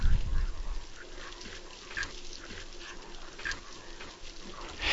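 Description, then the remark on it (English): Caribou grunt low and repeatedly while hooves click in scattered bursts, a restless herd moving past, some no more than fifteen yards away, with a small bunch running by, over a steady outdoor background with no one speaking. “Listen! You can hear their grunting.”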